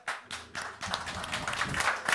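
The audience of an evening show applauds, starting with a few sharp, separate claps from one person that quickly build into dense, steady clapping from many hands, moderately loud throughout.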